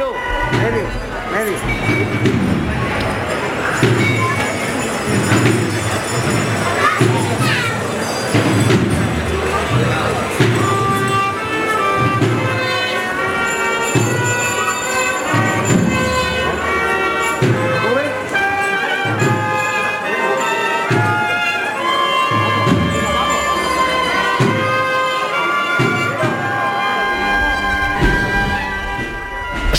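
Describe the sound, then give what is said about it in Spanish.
A Holy Week procession band plays a slow, solemn march for the Nazareno de la Sangre on Calle Comedias in Antequera, Andalusia, Spain, on Holy Monday: sustained brass melodies over a steady, regular drum beat, loud and continuous with faint crowd murmur beneath. “Así suena en Nazareno de la Sangre de Antequera, por la calle Comedias el lunes santo.”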